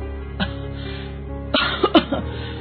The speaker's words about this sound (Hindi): पता नहीं बेटा ये खांसी तो जा ही नहीं रही है रुक माँ मैं खांसी की दवा लेकर आता हूँ